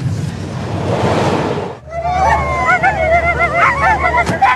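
A rush of wind-like noise gives way to a team of 11 sled dogs at the station barking and yipping excitedly, many high, wavering voices overlapping loudly, with no talking.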